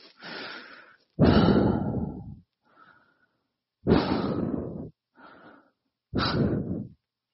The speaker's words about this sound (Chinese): 卡伦开始抑制不住地大口喘气，眼泪、鼻涕、冷汗开始抑制不住地滴淌。他双手紧紧握拳，将声音压抑到极体，嘴里不停地冒出各种脏话。